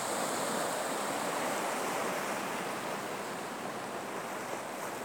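Ocean waves wash onto a beach in a steady, continuous hissing roar, holding an even level throughout with no distinct individual crashes and no voices.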